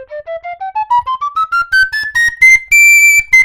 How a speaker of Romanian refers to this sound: Poți să cânti orice da. la acest fluier. Da, poți da. Să cânti la acest fluier se poate cânta orice. Da, da.